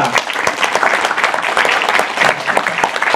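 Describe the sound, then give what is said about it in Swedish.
A crowd claps steadily throughout to welcome a guest, Darth Vader from the 501, a dense, continuous patter of many hands at even loudness, with no voices standing out above it. “Stor applåd för våran...”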